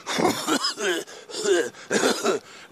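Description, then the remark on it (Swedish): A voice puts on a run of exaggerated throat clearing and coughing, imitating people in an ICA supermarket coughing at each other: several rough, gravelly bursts in quick succession, fairly loud, with brief gaps between them. “Och vi bara, bara, alla började bara hosta på varandra.”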